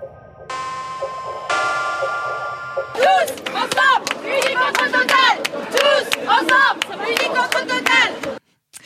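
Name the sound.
crowd chanting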